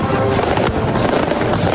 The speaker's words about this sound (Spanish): Esto que es en las fallas, ahí los, los petardos. Esta es la Luego les explicaremos a nuestros amigos que son las fallas. ahí se escuchan todos los petardos.